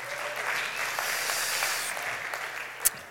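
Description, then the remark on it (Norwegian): An audience claps steadily for about three seconds, a dense, even patter of many hands with no voices, and one sharper, louder clap stands out near the end. “Jo, så jeg syns han fortjener en applaus.”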